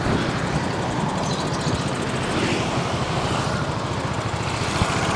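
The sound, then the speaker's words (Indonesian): Dense street traffic in front of Bandung Trade Mall in Bandung on a Sunday rumbles steadily, with motorcycle engines buzzing and idling in a continuous wash of noise and no voices. “nah iya ramai gitu sepeda anjir motor mah gampang tuh”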